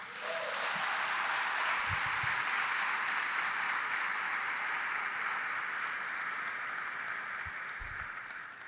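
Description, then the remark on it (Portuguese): An audience applauds Jesus during a sermon, a dense, even wash of many hands clapping that holds for about eight seconds and eases off slightly at the end, with no voices over it. “Aplauda Jesus.”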